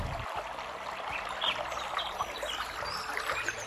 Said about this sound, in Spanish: Y cuando ambos estaban agonizando dejaron caer una lágrima de sus ojos que a través de la tierra reseca llegaron hasta la aldea y se convirtieron en un caudaloso río, cristalino y puro.